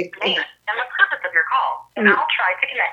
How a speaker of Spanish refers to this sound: Santos tiene un filtro en el teléfono y primero uno tiene que identificarse